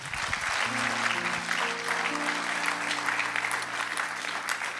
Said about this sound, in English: Come on, give the, give the Lord a hand.